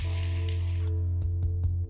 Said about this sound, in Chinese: 我们再次给他们一个掌声鼓励，谢谢谢谢二位。